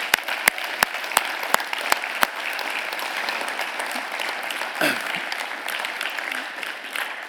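An audience applauds steadily for several seconds, a dense, even wash of many hands clapping, opening with a few sharp, evenly spaced louder claps that stand out at the start.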